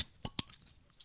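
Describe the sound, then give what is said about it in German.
A cold bottle of Schöfferhofer Weizenmix Grapefruit non-alcoholic shandy being opened: two sharp metallic clicks in quick succession, followed by a short, soft fizzing hiss, with no talking. “Und da habe ich hier ein Schöfferhofer Weizenmix Grapefruit alkoholfrei. Mm. Und das ist sogar noch kalt. Und das mache ich jetzt mal auf.”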